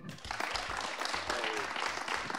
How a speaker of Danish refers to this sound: Og jeg skal lige høre, fordi at vi er en podcast, så I må meget gerne gøre det via applaus. Hvor mange har set filmen Hvidstengruppen til i dag?